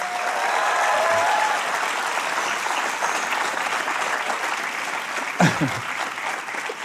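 An audience applauds steadily for about seven seconds, a dense, even wash of many hands clapping at a fairly loud level, with a brief sharper burst near the end.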